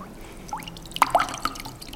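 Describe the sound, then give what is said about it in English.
Water drips from a squeezed sponge in a handful of irregular drops, each a bright little plink over a quiet background, with no one speaking. “How would you be different if your life were as filled with God as this sponge is with water?”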